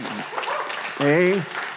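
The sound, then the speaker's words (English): A church audience claps steadily for victory, the dense patter of many hands filling the space while a single voice calls out briefly over the applause. “Let's just give God a hand clap for victory today.”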